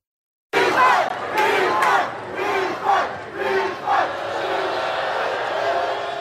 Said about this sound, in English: They're chanting refund there. Some 40,000 footy fans demanded their money back after a Major League Soccer exhibition game in Hong Kong.